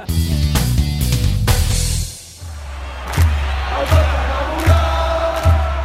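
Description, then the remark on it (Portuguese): A football stadium crowd at Camp Nou chants loudly after a goal by Suárez, organized supporters singing songs while standing; a dense wall of massed voices that settles into a steady, rhythmic pulse of regular beats. “Agora finalmente com o gol do Soares o time acordou a torcida também acordou, tá com um pouco mais com sensação de estádio, jogo de futebol e umas musiquinhas legais agora com a torcida organizada cantando em pé.”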